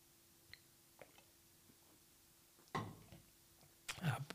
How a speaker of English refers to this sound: Let me drink a little sip of my Red Bull.